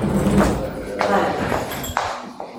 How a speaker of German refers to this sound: Und die Tür geht nochmal auf.